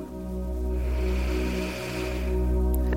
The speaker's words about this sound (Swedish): Så vi tar och börjar. Andas in.